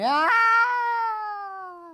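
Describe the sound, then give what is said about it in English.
A single human voice imitates an air raid siren, a loud wail that sweeps quickly upward, then holds and slowly sinks over two seconds, sounding somewhat like a yowling cat. “So I'm just going to do my own air raid siren.”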